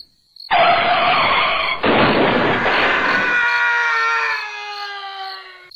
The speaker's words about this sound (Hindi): तू डर मत शायद रोड पे किसी का एक्सीडेंट हुआ है गांव में वैसे भी आए दिन कोई ना कोई एक्सीडेंट होते ही रहता है